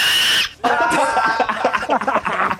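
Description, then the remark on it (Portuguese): A loud, shrill scream bursts out for about half a second, then breaks off into a flurry of excited voices and laughter. “então, é, é, permitido gritar nesse podcast?”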